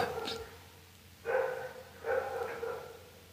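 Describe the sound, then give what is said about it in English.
A dog barks in a few short, sharp bursts with pauses between them, with a quiet background and no one talking. “I'm waiting for the dog to be done with his communication.”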